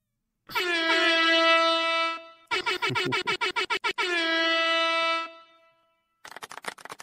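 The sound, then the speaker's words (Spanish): A loud air horn sound effect from a Stream Deck blares in a long blast, then a rapid stuttering series of short honks, another sustained blast, and a final burst of quick choppy hits, like a classic soundboard effect. “el pues mío no lo oís, ¿no? Eh, creo que no. Del Stream Deck.”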